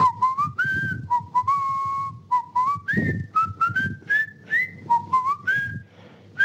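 Someone whistles a short, wandering tune of clear sliding notes in quick phrases, fairly loud, with soft low rumbles beneath and no talking.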